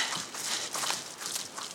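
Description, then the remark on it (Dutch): Footsteps crunch along a forest path at a steady, brisk pace as someone alternates between walking and jogging through the woods, with a soft rustling of leaves and ground debris and no voices. “We wandelen en lopen afwisselend door de bossen.”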